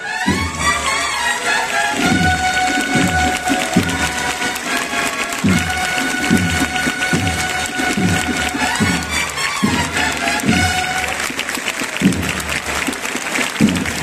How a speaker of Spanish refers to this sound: Bueno, pues la ovación también del final de la marcha.